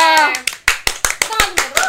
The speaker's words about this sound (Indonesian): Tepuk tangan ya.